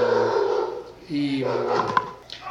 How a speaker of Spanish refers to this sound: es, es muy curioso que, que, ladren los perros cuando hablo de mi tutor, es muy, muy, muy simpático ese asunto.